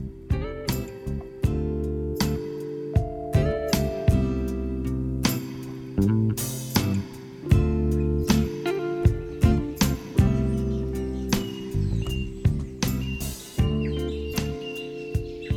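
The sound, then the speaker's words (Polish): A short instrumental music passage with a steady pulse of percussive accents over sustained low tones and bright, twinkling high notes, played at a moderate, even volume with no voices. “A teraz posłuchajcie muzyczki i opowiem Wam o tym, co robi małpa.”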